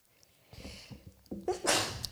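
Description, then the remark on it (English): A single sneeze: a few short catching breaths build up, then a sharp, hissy burst of air that trails off quickly. No talking accompanies it. “Bless you.”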